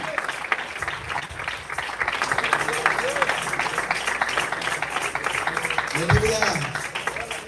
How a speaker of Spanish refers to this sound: El aplauso es para Cristo Jesús. Le damos.